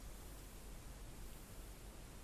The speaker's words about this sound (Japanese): これはね、あの、ズームの H3VR っていう360度撮れるやつね。このマイクね、やっぱりね、まあ、スタンド FM だとあんまりね、このホワイトノイズそんなに気にならないんですけど、これやっぱホワイトノイズが多すぎんだよな、この、このマイク。